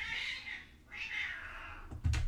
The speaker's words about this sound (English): hold on a second. That was a cat outside. Hold on. you guys, I'm so sorry. Oh my gosh. There are a few cats outside my window, and I don't know what's going on out there.